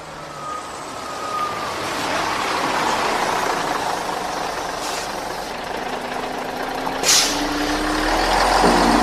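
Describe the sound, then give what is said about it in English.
Inside a moving number 135 city bus: a steady engine drone with rising whine and road rumble, broken by short sharp hisses of the air brakes, the loudest near the end as the engine revs. “So please give a warm welcome to my guests on the back of the 135 bus”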